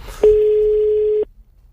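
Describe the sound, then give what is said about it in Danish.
A single steady telephone ringback tone, a loud, clean hum lasting about a second, then cutting off abruptly into near silence. No voices accompany it. “Prøv lige at ringe til ham.”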